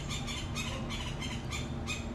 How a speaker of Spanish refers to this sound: se está escuchando unos pájaros.